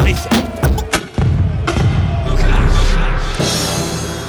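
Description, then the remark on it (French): A loud, dense jingle for a radio debate show opens with a quick series of booming hits and crashes, then swells into a sustained, full-bodied blast of sound that runs to the end. “J'aime toujours autant ce jingle.”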